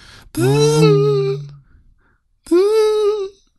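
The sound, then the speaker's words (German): A voice imitates a game controller resonating at an odd frequency so its vibration became audible whenever a coin was collected in a game, with two sustained, buzzy hums, the first longer and the second shorter after a brief pause, fairly loud. “die haben so komisch vibriert in so einer komischen Frequenz”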